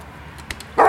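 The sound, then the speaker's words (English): A huge Great Dane lets out one loud, deep bark near the end, after a moment of near quiet broken only by a faint tap. “There's barely enough room for the four of us as it is without having to share the van with a bloody huge Great Dane.”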